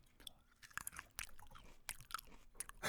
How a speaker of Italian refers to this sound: persone che mangiano davanti al microfono. Allora, adesso facciamo un esperimento. Eh. Io ho qua degli acini d'uva, vediamo se funziona.